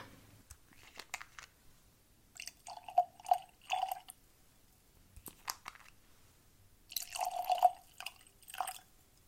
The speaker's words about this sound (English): Glasses and tasting cards are ready. Let's get these poured and jump right in.